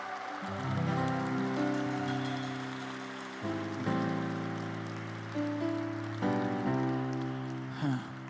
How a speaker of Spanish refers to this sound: Vamos, si vas a aplaudir, apláudele fuerte al rey.